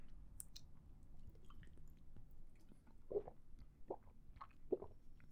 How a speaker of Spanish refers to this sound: Procedo a tomar otra vez agua porque estoy muy cansado de mi voz.